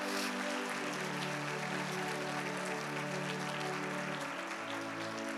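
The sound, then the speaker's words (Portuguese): An audience applauding loudly for the Lord, a dense, continuous wash of clapping that holds steady for several seconds over a sustained, low keyboard chord, with no voices standing out. “Vamos aplaudir bem forte ao Senhor?”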